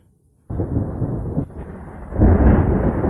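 A deep, rolling rumble of thunder breaks in abruptly after a brief silence, sustains heavily, then swells louder toward the end, with no voices present.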